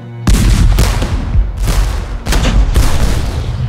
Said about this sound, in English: Howe unleashes a fury of cannon fire, later described by a British midshipman as so terrible and so incessant a roar of guns, few even in the Army and Navy had ever heard before.